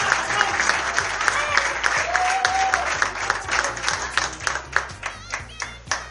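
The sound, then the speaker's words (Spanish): An audience at the second Festival de Cine Marplatense awards applauds the Best Director winner, a dense wash of many hands clapping at once that thins toward the end into more separate, distinct claps, with faint crowd voices underneath. “Fuerte el aplauso, renovamos el aplauso.”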